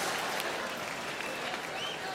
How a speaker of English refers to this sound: Clap your hands, sir. Stop being racist. Clap your hands. Jeez.